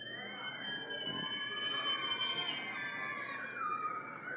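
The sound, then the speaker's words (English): A crowd of children screams loudly and continuously in a church when asked to show they love their parents. Many high-pitched voices overlap into a shrill, sustained roar that swells slightly near the middle. “Kids, how many of you in here love your parents? Raise your hand. Scream around loud.”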